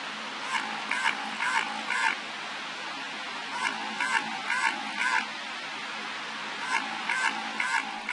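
Odd underwater quacking sounds, recorded by hydrophone in the Southern Ocean, repeat in short rhythmic bursts, about four pulses per group with pauses between, steady and moderately loud over a hissing background. No one speaks.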